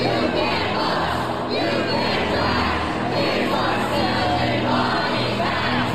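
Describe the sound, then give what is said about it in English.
A large crowd of protesters chants and shouts together at the Tennessee state capitol on Thursday as two state representatives are expelled from the legislature, a dense, loud roar of many voices sustained throughout, with rhythmic rises in the collective yelling. “That's the sound of protesters chanting at the Tennessee state capitol on Thursday as two of their elected state representatives were expelled from the legislature”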